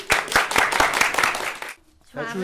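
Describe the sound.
Audience applause rings out for under two seconds with a steady, rhythmic beat of claps, then stops abruptly and a voice begins speaking.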